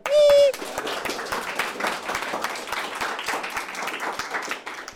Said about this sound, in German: Und jetzt gibt es mal Applaus, oder? Oder?